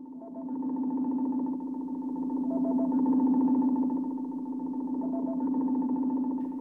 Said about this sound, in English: So here's your spoiler warning red alarm.